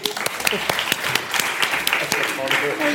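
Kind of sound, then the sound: crowd, audience applause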